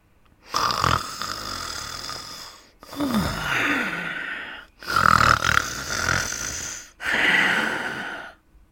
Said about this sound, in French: Que signifie cela s'étonna Hugues. On dirait que Tom ronfle. Il ronflerait rudement fort, répliqua Jacques.